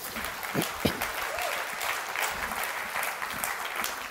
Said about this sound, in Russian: Давайте поаплодируем этой личности.